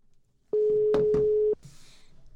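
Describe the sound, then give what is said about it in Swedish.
A single steady telephone ringback tone of an outgoing call to a personal trainer in Uppsala, Sweden sounds for about one second, loud and clear over the line, then cuts off, leaving faint line hiss and a brief crackle. “vi ska nu ringa upp en tjej som heter Chris som jobbar som PT”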